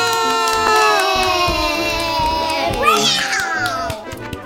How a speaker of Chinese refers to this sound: 不管你们答对了几题，我们都要帮大家掌声鼓励一下。耶！大家太棒了！